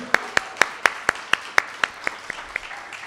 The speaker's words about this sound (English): Round of applause for the roasters because they are awesome.